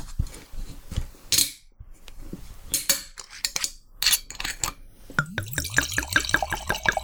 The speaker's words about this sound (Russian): Ну что, давайте откроем, нальем в бокалы. Так, мне кажется, разговор пойдет быстрее.